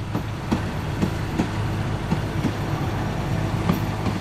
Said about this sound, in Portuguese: O Europa Minha visitou a vila de 1.600 habitantes a cerca de uma hora de carro de Budapeste e viu o pequeno comboio colorido, três carruagens restauradas com interiores de madeira envernizada